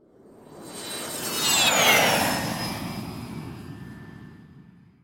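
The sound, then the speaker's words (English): Elon Musk's jet plane roars past overhead, its whine sweeping downward in pitch as it swells to a peak and then fades away. “Why, it's Elon Musk's jet.”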